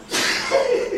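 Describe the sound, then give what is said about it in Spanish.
A single sneeze, fairly loud, with a sharp noisy burst that trails into a short voiced tail. “Salud.”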